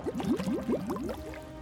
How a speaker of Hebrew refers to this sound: אני צמאה, אני אמזוג מים.